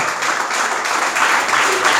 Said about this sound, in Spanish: Déselo al Señor el aplauso si se lo va a dar.